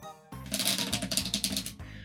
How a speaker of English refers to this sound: But for now, we're gonna go with the what the heck deck with the 28 cards, and here comes the good good shuffle.